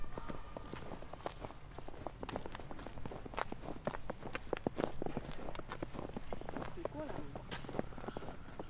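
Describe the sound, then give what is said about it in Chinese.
Steady footsteps crunch through snow beside a path swept clear by street cleaners, each step a dry, gritty crackle in a quick walking rhythm that continues throughout, fairly quiet with a soft background hiss. “主要是我觉得我看了雪就忍不住在上面走，但是大家都默认走这条路， 啊， 我觉得很神奇。”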